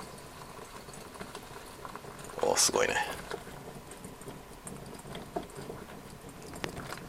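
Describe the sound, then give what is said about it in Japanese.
Water coming to a boil and bubbling in a pot over high heat, a steady gurgle and crackle throughout, with a brief louder burst of hissing bubbles in the middle and a short exclaimed remark from a voice. “で今沸騰してきてごぼごぼ言っております”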